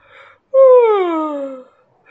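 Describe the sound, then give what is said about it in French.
A single loud, drawn-out yawn, voiced by a person as the little prince of Le Petit Prince yawning from tiredness, sliding downward in pitch over about a second before trailing off, with brief quiet breathy sounds around it. “Il resta donc debout et, comme il était fatigué, il bâilla.”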